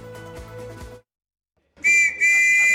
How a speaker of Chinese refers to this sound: 哨音响起，乘客得加快脚步，赶紧上车。西班牙马德里火车博物馆这辆复古列车以全新面貌出发，循着百年前的原始路线，从马德里开往五十公里外的阿兰湖埃斯宫。